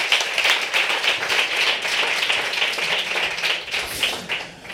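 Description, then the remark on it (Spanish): Steady audience applause, a dense crackle of many hands clapping at an even loudness throughout, with no voices heard over it. “Pues este aplauso para todos los vinagres, hombre.”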